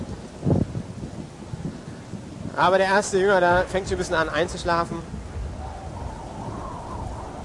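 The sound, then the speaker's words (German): A rumbling storm with steady rain and low thunder runs underneath, while a man speaks in the middle; the rain hiss continues evenly after he stops. “Der Sturm, der hört nicht auf. Der ist weiter am Toben.”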